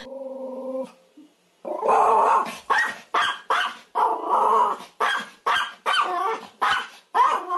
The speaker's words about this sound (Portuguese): Aquele cachorro fofinho, peludinho, pequeno, que late muito e muitos donos gostam de levar na bolsa